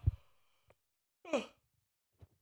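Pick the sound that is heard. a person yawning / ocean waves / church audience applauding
a person yawning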